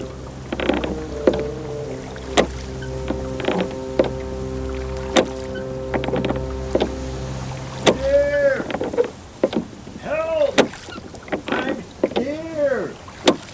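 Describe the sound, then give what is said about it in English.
Rowboat oars dip and splash through water in a steady rhythm of sharp strokes as the boat heads toward a voice calling for help, over a low, constant hum, followed by a few strained, wavering vocal calls. “Raise oars.”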